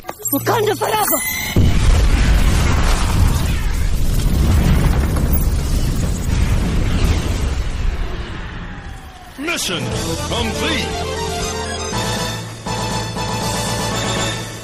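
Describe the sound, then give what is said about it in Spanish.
A loud, booming explosion, detonated by Shuri as she counterattacks in a film fight scene, bursts out near the start and rolls into a long, deep rumble that slowly fades, before dramatic music takes over. “Se quita la lanza y entonces contraataca, dando una maroma y luego detonando una explosión.”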